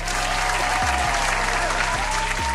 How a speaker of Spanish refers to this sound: Así que hay que darle la bienvenida con todos los aplausos, gritos y felicitaciones que se merece